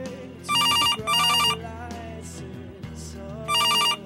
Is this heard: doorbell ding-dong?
no